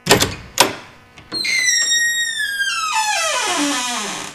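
A couple of sharp wooden knocks, then a confessional door swings open with a long, loud creak that wavers and slowly slides downward in pitch, with no one speaking, in a promo for the Saturday-night show Les Confessions d'Anna on the radio station Maximum.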